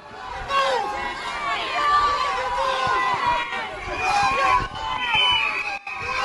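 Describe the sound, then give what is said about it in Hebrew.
A crowd of protesters in Malta shouting and cursing at the Prime Minister of Malta as he left a debate in parliament, yelling "Mafia", many angry voices overlapping in a loud, continuous clamor with rising yells and a brief dip near the end. “צעקות וקללות. זה מה שקיבל אתמול ראש הממשלה של מלטה כשיצא מדיון בפרלמנט.”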